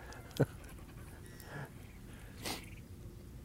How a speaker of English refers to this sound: Oh, yeah, it was a dog. Come here. It's okay. He's just like you. He's just trying to look for a place to poo.